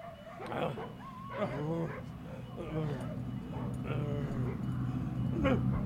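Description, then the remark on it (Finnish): Sled dogs bark and whimper in a string of short, excited yips and whines while struggling to pull the sled, over a constant low rumbling background. “Annakin sä järjes heilua, eivät koirat jaksa meitä kiskoa, vastaan jarrutetaan.”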